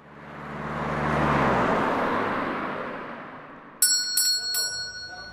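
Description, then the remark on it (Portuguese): A car's engine and road rumble swell up loudly and slowly fade over several seconds as it drives over a road full of potholes, followed near the end by a few bright, ringing bell chimes. “Caramba, que buraqueira. Acho que o pneu já era.”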